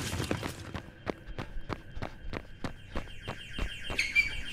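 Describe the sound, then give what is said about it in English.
Heavy running footsteps of a security SWAT team pound in a rapid, steady rhythm toward a blast curtain in a foyer, loud, with a thin high-pitched tone creeping in near the end. “At the foyer, there was wreckage, and the blast curtain had deployed, but fouled on something, and a whole SWAT team from security were thundering toward it.”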